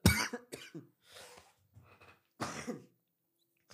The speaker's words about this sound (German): … musste kurz husten für die Leute, die es jetzt nicht auf Video gesehen haben.